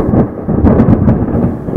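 thunderstorm thunder

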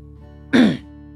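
throat clearing

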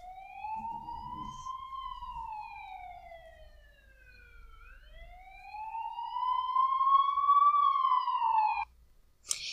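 ambulance siren sound effect

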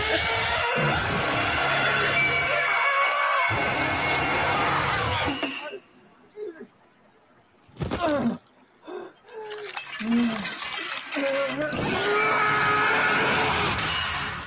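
scream

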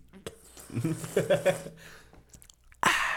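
taking a sip

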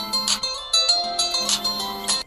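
telephone ringing

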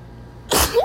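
sneeze

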